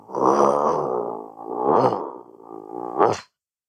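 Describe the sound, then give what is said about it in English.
A person growls in a low, rough, sustained voice for about three seconds, imitating an angry animal, with a few swells in loudness and a sharper burst at the end. “You know, as I may go, when someone may irritate me, I might be like, grrr right and that's like instead of me getting mad or like saying like you know profanity words at the person i might just growl at them grrr”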